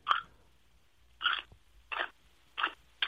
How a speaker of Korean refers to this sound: 아, 총각 씹는 소리가 나네, 진짜 이렇게 그죠?